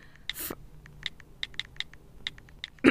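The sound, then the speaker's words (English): A quick series of small, crisp phone keyboard taps from texting with the keyboard sound effects turned on clicks away at an irregular pace, clear, with a louder rustly burst near the start and a thump at the end. “But if you're in public and you're beside me and you're texting on your phone and it's like tippy tappy, tippy tappy, like full volume.”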